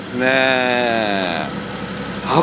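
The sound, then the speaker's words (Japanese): The engine of a Nissan Skyline Hakosuka, a Japanese-made car, idles steadily after being started: a smooth mid-pitched hum with a faint rumble that eases slightly partway through, then a brief louder burst at the end. “うんいやいやでもエンジンをかけますうんそうですねいやでもこれがね国産車のエンジンなんですよ、ええ、ねええ静か静かですね”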